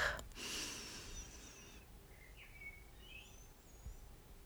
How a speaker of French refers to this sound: Une deuxième fois en essayant de ralentir au maximum votre respiration, en essayant d'inspirer sur 5 secondes et d'expirer sur 5 secondes.